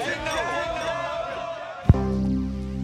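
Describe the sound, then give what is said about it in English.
A single sharp clink of glasses rings out near the end, following a stretch of murmuring background voices, then gives way to a steady low hum. “We have to do a big cheers to below average Joe.”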